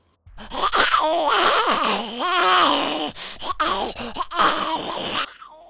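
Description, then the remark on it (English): A person imitates a zombie with drawn-out, wavering groans and moans, loud, in two long bursts separated by a brief gap, ending in silence. “Second one sounds like Porky Pig and Bugs Bunny trying to do a zombie.”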